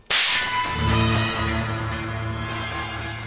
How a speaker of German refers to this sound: Elias schaltete seine Leselampe an und die Schnelldenkkappe, die daran baumelte, explodierte.